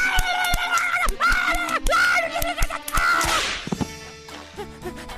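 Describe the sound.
A rapid series of sharp face slaps, about a dozen cracks in quick succession, as a screaming woman is slapped until she calms down; her voice wails and screams in rising and falling tones that fade near the end.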